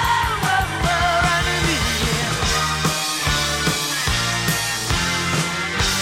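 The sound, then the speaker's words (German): A loud, full-band rock song plays steadily, with drums and guitars driving the beat and a man in the studio yelling along with the singer and waving his hands to signal the ending, his voice heard in the background of the mix. “zeigt den dann an und, und grölt ihn kurz mit und man hört ihn ja auch im Hintergrund”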